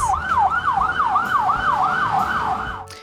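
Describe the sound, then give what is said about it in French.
An ambulance or police car siren in London yelps in quick, repeating up-and-down sweeps, loud, over a low rumble of traffic, then cuts off abruptly after about three seconds. “et le vacarme infernal des ambulances et voitures de police.”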